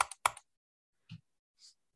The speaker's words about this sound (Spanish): Abro mi Premiere, un par de clics